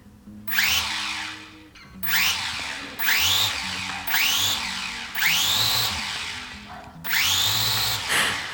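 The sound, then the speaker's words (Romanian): A small toy drone's propellers whir up in short, high-pitched bursts, about six spins rising in pitch and cutting off, fairly loud, with no talking. “Și-a comandat drona pe internet dintr-un motiv tare simplu.”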